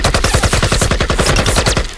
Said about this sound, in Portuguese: Puxou seu rifle e disparou. Os projéteis mergulharam contra a terra, mas nada.